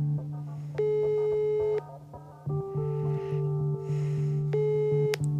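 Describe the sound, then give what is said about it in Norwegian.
A steady electronic telephone tone drones on, with sustained pitched beeps stepping up and down over a constant low hum, like an unanswered call line, with no voices. “Personen du ringte, svarte ikke. Ditt anrop kobles ned.”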